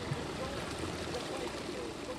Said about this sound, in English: This plaza in which we stood, there were over a hundred refugees sleeping outside here on mattresses, washing their utensils, their hands and legs with water that spouted out of the curb.